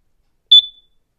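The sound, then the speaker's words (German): A single short, high-pitched electronic beep rings out clearly on its own from an alarm clock as its button is pressed to select an alarm sound, then trails off quickly into silence. “Aha, dann ist dieses Piep, Piep, Piep.”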